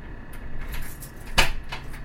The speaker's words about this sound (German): Mal schließe ich mal die Türe.